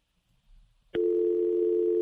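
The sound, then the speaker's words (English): A click as a phone call drops, followed by a loud, steady telephone dial tone that holds unbroken to the end, after a near-silent lead-in. “Oh, no, we lost John”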